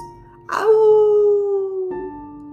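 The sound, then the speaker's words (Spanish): A long, drawn-out howl of a dog and a rat howling together rises sharply then slides slowly downward in pitch, sustained for over a second, clear with no talking, fading into a soft tonal hum. “Y cuando la luna lucía hermosa y brillante, Rata y Perro aullaban juntos.”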